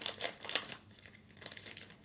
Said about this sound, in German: Ich bin dran mit wieder so einem Scheißpack. Ich nehme wieder die Schere.